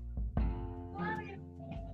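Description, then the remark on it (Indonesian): A small stray kitten's high, wavering meow sounds, with a couple of short mewing cries stretching across the moment, over a low background hum. “Ini agak lucu ya nanti di posting ya, ada suara. Seru kucing.”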